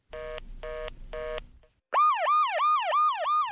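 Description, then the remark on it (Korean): An ambulance siren sounds loud as the ambulance takes a mother and her sick baby to hospital: three short blaring tone bursts, a brief gap, then a fast repeating yelp that sweeps up and down in quick cycles. “결국 구급차를 타고 홀로 병원에 간 지영.”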